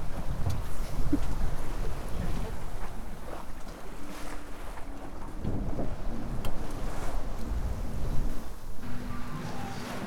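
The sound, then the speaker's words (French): Steady wind roars across an open sailboat at sea at night under the moon, with low rumbling gusts buffeting the microphone and faint creaks and water sounds underneath, continuous throughout. “Puis là, bon, bah, on a la lune toute la nuit, il y a du vent, ça devrait aller.”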